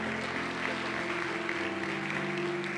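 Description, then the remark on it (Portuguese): A crowd claps steadily for a few seconds, a dense, even patter of many hands, with a faint sustained low tone humming underneath. The applause is for a child who has just been presented and blessed in the name of Jesus. “Manda uma salva de palmas aqui”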